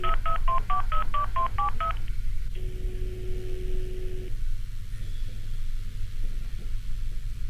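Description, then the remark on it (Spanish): A quick run of about nine telephone keypad beeps as a call is placed to an NGO, followed by a single long ringback tone that stops with no answer, all over a steady low background hum. No voices. “No contestaban, no cogían los teléfonos”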